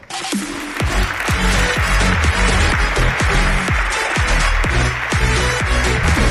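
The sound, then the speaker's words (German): A large audience in Munich applauds steadily on a Saturday morning to welcome a speaker before a talk on building financial freedom with real estate, a dense, loud wash of clapping that swells within the first second and holds for several seconds with no voices on top. “Ganz großen Applaus”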